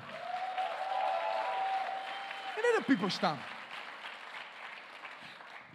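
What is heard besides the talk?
audience applause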